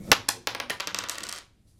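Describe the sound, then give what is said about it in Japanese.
Dice clatter across a hard tabletop: a sharp initial impact followed by a rapid series of smaller bouncing clicks that slow and fade within about a second and a half, fairly loud, no voices. “じゃあラストですね3つ目いきますではサイコロ振ります”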